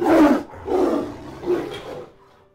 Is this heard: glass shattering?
no